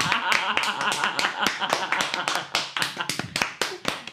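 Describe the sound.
A single person claps steadily, about fifteen close, sharp hand claps in a quick even rhythm, with faint voices murmuring underneath.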